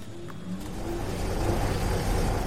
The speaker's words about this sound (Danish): Men nu bliver den gigantiske papirmaskine tændt.